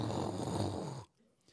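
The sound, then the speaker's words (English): A voice imitates heavy pouring rain with a loud, rough hissing rumble that holds steady for about a second, then cuts off abruptly into near silence. “You ever been outside when it's raining so hard it sounds like?”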